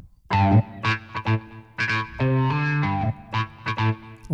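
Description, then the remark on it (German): An electric guitar with a wah-wah effect plays short, rhythmic chord stabs and sustained notes, its tone sweeping and effected, fairly loud with no voices. “Jetzt haben wir die erste wava gitarre”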